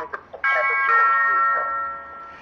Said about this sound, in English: and we got a little thing on this show. Every time somebody used the king name, we like to use the doorbell.